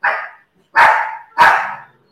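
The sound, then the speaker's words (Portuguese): A dog named Libia barks three times in quick succession at a cat, loud, each bark sharp and slightly drawn out with a brief pause between them; no one speaks. “Opa, Libia latindo pro, cachorro, pro gato.”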